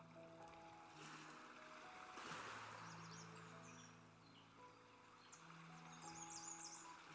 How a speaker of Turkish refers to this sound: Denizi gözlemle bir süre. dalgalarını durmaksızın kıyıya gönderiyor. Her ne olursa olsun dalgalarını sürekli kıyıya gönderiyor.